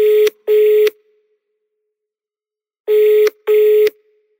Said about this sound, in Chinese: 电话响了很久很久，你才接了起来。